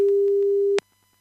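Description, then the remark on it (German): A single steady, mid-pitched telephone ringing tone of an outgoing call back to a caller sounds for under a second, then cuts off abruptly with a faint click, leaving near silence. No one speaks. “Wenn es jetzt klingelt, ist gut.”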